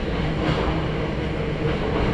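A Hakone Tozan Railway mountain train in Japan runs along the track between Hakone-Yumoto and Ohiradai, a steady, heavy low rumble with a grinding roar layered on top, holding an even loudness throughout with no voices.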